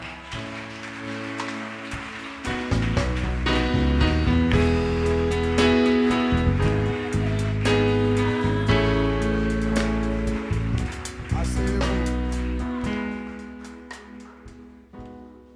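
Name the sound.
audience cheering and applauding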